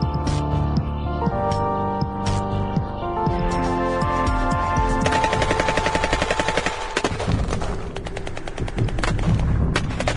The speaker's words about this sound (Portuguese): Nossa Senhora. Essa troca de tiros aí tá valendo.